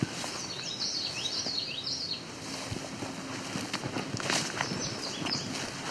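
indigo bunting song

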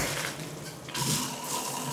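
shower water running

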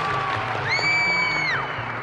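arena crowd applause

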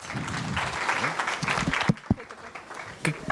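audience applause

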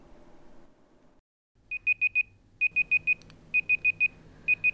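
alarm clock ringing

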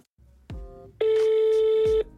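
telephone ringing

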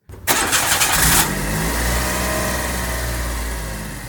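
car engine starting

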